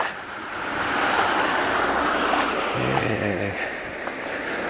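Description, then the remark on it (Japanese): A loud, broad roar of a low-flying jet airliner heading to land at Niigata Airport, Japan, fills the whole stretch, steady and rumbling, with a brief lower engine drone swelling partway through and some wind buffeting. “飛行機だなあ割と低空飛行超低空飛行のジェット旅客機なので音がする方向にちゃんと見えておりますがおあれは新潟に新潟空港に降りるやつだなでかく見えますね”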